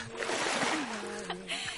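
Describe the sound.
Loud, churning splashes of two people jumping into a cold river, a broad continuous rush of disturbed water for under two seconds, with a faint voice underneath.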